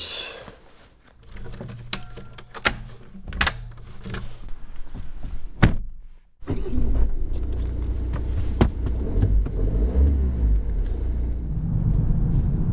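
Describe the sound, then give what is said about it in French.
Scattered clicks and thumps, like a car door and handling, give way to a car engine starting up and running with a steady low rumble, its pitch rising and falling as it drives off toward the village of La Grave. “Allez, c'est parti, je prends la voiture, je vais directement au village de la Grave qui est pas très loin”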